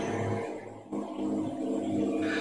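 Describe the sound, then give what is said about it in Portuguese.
A truck passes by outside, a heavy low engine drone rumbling steadily with a brief dip before it swells again, moderately loud and continuous with no one speaking. “Ele tá deu tá passando um caminhão aqui, peraí.”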